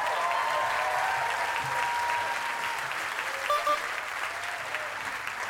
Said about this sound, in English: Let's direct the attention over to, to stage right, ladies and gentlemen. Give a hand over here